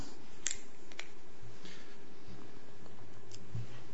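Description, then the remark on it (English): Quiet sips of water, a handful of soft wet clicks and slurps spread over a few seconds with no talking. “I'm going to have a little sip now because it's getting a bit warm.”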